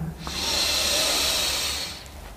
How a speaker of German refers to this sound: Wir nehmen jetzt zusammen einen tiefen Atemzug und atmen ein.